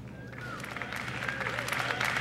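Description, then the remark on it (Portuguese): A crowd at a Facebook presentation breaks into applause after Mark Zuckerberg announces making the camera the first augmented reality platform; the applause swells after a quiet start into steady, dense clapping, with a faint tonal whine in the background. “A multidão aplaude e Zuckerberg sorri convencido.”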